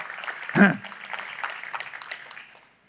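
An audience breaks into steady, dense clapping that lasts a couple of seconds, with a brief loud cheer or shout near the start, before the applause fades out.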